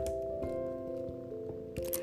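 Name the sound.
domestic cat purring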